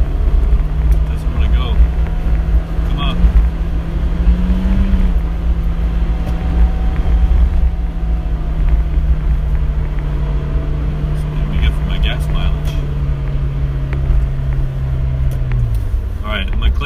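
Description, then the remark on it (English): A car engine, stuck in low gear, drones steadily at high revs, its pitch lifting briefly midway and dropping away at the end, with muffled voices faintly beneath the loud, continuous hum. “well my car is stuck in low gear.”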